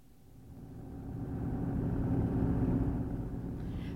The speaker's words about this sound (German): Fahr doch nicht so schnell.